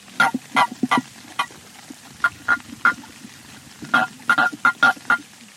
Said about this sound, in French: Professeur, mais enfin, vous avez fait un orchestre avec les crapauds de la mare Bah oui, ma petite ambre. Pourquoi pas J'ai mis les grenouilles d'un côté, les crapauds de l'autre, et hop, en avant la fanfare.